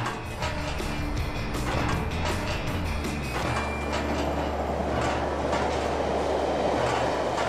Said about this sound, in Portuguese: Bastante assustados, ouviram-nos explicar que o prazo de validade já tinha passado, que a ponte podia cair a qualquer momento e como a passagem dos comboios abanava os ferros, caíam pelo menos 100 parafusos ao rio.